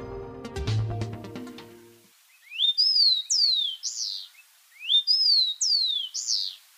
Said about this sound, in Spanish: Este es el copetón común que se puede escuchar y observar en Bogotá casi en todas partes y a todas horas.